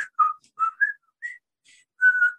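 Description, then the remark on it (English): Someone whistles a short, jaunty military march tune rather poorly: a handful of clear notes in quick succession with brief gaps, no talking over it. “starts whistling the theme from um, Bridge Over the River quite poorly”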